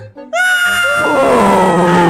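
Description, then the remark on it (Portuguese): A voice imitates someone screaming down a water slide: after a brief low murmur, one long, loud, shrill yell holds steady, then slowly drops in pitch and roughens as it trails on. “Como é que é o tobogã? Sound vai gritando, …, no tobogã.”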